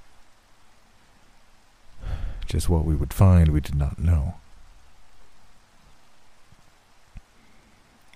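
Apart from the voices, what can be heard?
rain falling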